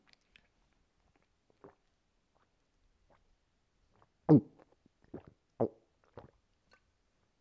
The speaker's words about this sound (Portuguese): Vocês gostam do barulho de pessoas a beber água? Tipo, esta merda.